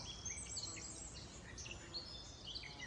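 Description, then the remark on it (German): Faint birdsong: several small birds chirping and trilling in quick, scattered bursts over a soft, steady outdoor hush, with no voices. “Und wenn du dann noch dem Gesang eines Vogels lauschst, in der freien Natur”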